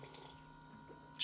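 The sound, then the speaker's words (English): A quiet sip of Southern Comfort liquor over a low steady hum, ending in a short, sharp slurp as the drink is drawn in. “and, and sipping Southern Comfort.”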